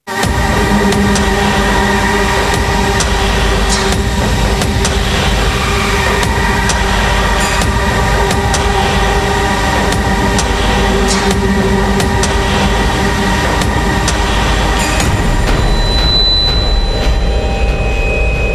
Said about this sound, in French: j'ai euh, volontairement réduit l'image stéréo de la nappe synthétique tout en laissant euh, la partie percussive telle qu'elle. Et regardez ce que ça donne une fois qu'on a réduit l'image stéréo de ce même générique.